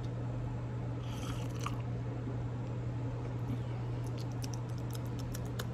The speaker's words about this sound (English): You guys wanna know my real favorite part? It's right here, it's the first sip. It's that first sip. It's just oh, nice and hot.